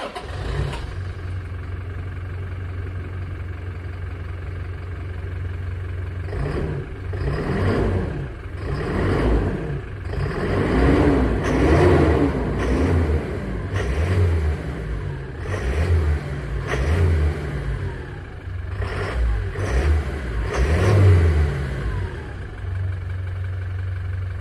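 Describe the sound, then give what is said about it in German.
A Toyota Hilux diesel pickup engine rumbles at a low, steady idle, then revs repeatedly in a series of throaty swells that rise and fall, loud and gruff, with no voices. “Sehr, sehr dieselig. Und es ist der Toyota Hilux.”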